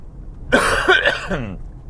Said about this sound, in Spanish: Ay, sigo con esta tos todavía. Menos que ayer, pero todavía